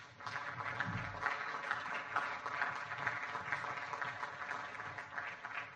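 Steady audience applause fills the whole stretch, a dense wash of many hands clapping at an even, sustained level with no voices rising above it.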